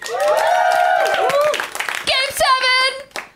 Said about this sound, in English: Everyone stops clapping. I'm just like cranking you up, and you're like, no, we are not talking about numbers or games.